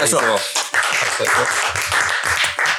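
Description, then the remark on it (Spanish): Steady applause from a crowd fills the whole stretch, a dense wash of clapping mixed with excited voices and cheering, fairly loud throughout, following a musical solo. “Aplauso también.”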